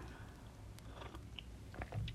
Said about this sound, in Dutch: Even een slokje thee.